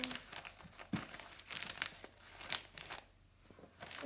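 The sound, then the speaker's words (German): Gift wrap crinkles and rustles in irregular bursts while a bow is tied, with sharp crackly swells and softer shuffling between them; no one speaks. “Ihr müsst wissen, ich kann Schleifen genauso schlecht wie Schenke einpacken.”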